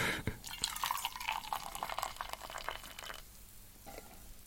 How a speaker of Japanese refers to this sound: で、このフラスコの方は、まあ今スタンドに固定されてるわけですけど、このスタンドごと持って、えー、注ぐ。